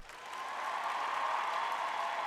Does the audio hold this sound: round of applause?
yes